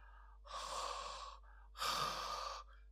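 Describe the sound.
A voice imitates heavy breathing: two long, loud, breathy exhalations, each lasting nearly a second, separated by a short pause, with no talking.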